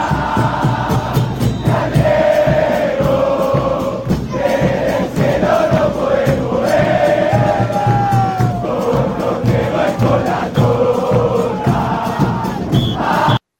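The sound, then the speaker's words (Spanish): A huge crowd of football fans sings the new 2022 World Cup chant in unison, loud and unbroken, the melody rising and falling over a thick roar of voices for about fourteen seconds. “Ah, esta es la canción del mundial, ¿no? La nueva.”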